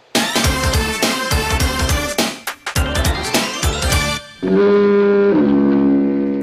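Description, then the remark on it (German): A doorbell rings, its sustained two-note chime shifting pitch midway, after a few seconds of busy, rhythmic, music-like sound. A brief voice is heard just as the chime begins. “das war die Türklingel.”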